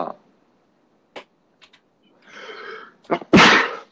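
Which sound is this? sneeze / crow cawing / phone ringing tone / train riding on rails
sneeze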